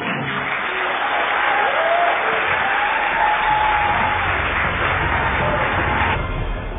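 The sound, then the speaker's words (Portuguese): Sustained applause from a crowd, a dense, steady wash of clapping at an even loudness for several seconds with no speech over it. “Pode aplaudir também, porque o cara arrebentou.”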